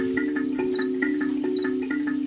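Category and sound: insect, crickets chirping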